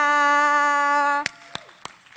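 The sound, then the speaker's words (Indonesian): A steady, held musical tone fades out, then four sharp, evenly spaced claps ring out in a quick rhythm, crisp and fairly loud against a quiet background, at an in-person Youth Impact church worship service. “kasih tepuk tangan dulu semuanya.”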